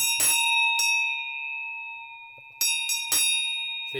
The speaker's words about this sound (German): Daneben, also neben diesen robusten Glocken, die die Kühe auf den Almen tragen, gibt es auch die sogenannten Singeisen.